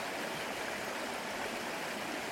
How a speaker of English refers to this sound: But I've found this um, this small, fast-running brook.